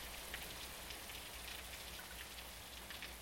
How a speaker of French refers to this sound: Je m'en allais calmement de ce site unique où la morte s'abandonnait à l'éternel battement de la pluie sur la tombe.